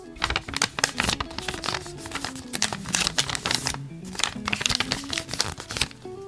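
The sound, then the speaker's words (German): A sheet of paper is folded three times, a steady stream of crisp crinkles, rustles and sharp creasing snaps for several seconds, with no talking. “Jetzt habe ich ein Blatt Papier dreimal gefaltet.”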